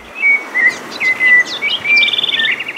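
Birds sing brightly and continuously in spring, their courting season, with clear whistled notes and quick chirping trills overlapping one another, fairly loud over a soft outdoor background hiss.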